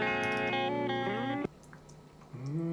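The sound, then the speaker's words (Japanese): A bright, sustained acoustic guitar tone, only the third note taken from an acoustic guitar recording and played back while editing, rings with shifting pitch, then cuts off abruptly with a sharp click, leaving a quiet gap before a softer rising note sounds at the end. “これアコギですもんね3音目目だけ持ってきますいやもう無理か無理ですねさすがにフェードインフェードアウトかけても厳しいですね”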